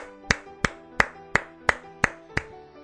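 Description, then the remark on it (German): Seven sharp, evenly spaced claps ring out in a steady beat, about three per second, over a faint sustained tonal hum, with no one speaking. “zwar mit gemeinsamer Gänsehaut und noch einmal gemeinsamem Applaus.”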